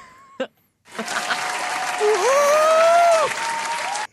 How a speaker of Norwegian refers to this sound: Fortjener applaus for den.